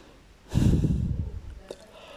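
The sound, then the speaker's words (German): A single drawn-out yawn from a tired speaker, with a breathy intake swelling into a low voiced groan that fades after about a second, followed by a faint click. “Ich merke auch gerade, ich muss gähnen, ich bin echt müde.”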